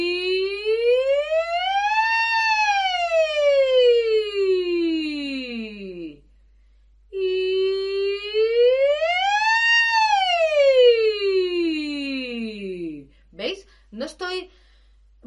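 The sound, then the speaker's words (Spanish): A singer practises two long ascending vocal siren glides on an "ee" vowel, each rising smoothly from the middle of the range up into the high register and falling back down, to test projection of the vowel on high notes; clear, followed by a few short breathy sounds. “Pues unas sirenas largas, ascendentes. Ya me voy desde el medio al agudo.”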